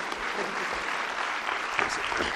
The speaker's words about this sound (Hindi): दोनों के लिए जोरदार तालियां